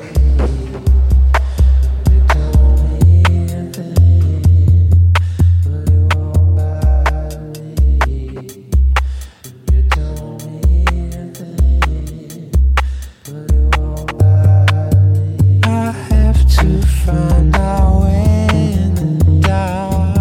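Atmospheric rock-style music plays with a steady, pulsing low bass line, layered sustained tones and regular percussive hits, loud and continuous with no voices.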